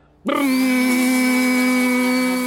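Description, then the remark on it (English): A power sander sanding windowsills during maintenance work in an office starts up abruptly and runs with a loud, steady motorized whine and grinding hum, continuous, with no voices. “your windowsills needed a good sanding”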